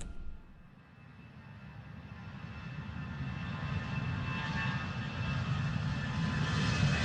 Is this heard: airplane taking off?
yes